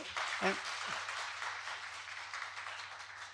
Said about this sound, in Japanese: もう一度大きな拍手